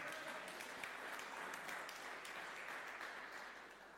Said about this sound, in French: On peut applaudir la jeunesse.